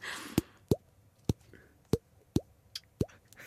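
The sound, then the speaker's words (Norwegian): A voice imitates water drops with a series of sharp mouth plops, about six or seven of them in an uneven rhythm, clear with no talking. “Det er som en vanndråpe.”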